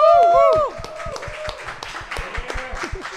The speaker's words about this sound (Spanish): Vamos a arrancar y es que yo me siento súper contenta de estar aquí en vivo en The Bookmark Santurce. Un aplauso.